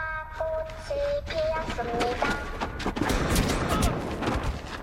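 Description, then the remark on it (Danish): A rapid barrage of gunshots from a violent on-screen show cracks out in dense bursts, growing heavier toward the end, layered over a rumbling background with a few sustained tones early on. “Der blev fyret mange skud.”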